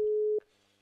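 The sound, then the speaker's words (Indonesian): A loud, steady phone busy tone sounds once for about a third of a second after a call is hung up, a flat electronic hum that cuts off abruptly into near silence. “Wah, dimatiin ternyata, ternyata dimatiin nih”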